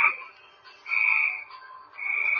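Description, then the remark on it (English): Tree frogs croak their mating calls in a loud, buzzy chorus that swells in repeated pulses, with no voices. “Sitting here looking at these tree frogs.”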